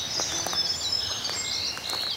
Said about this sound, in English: I think I can hear the birds up there talking in the tops of the trees.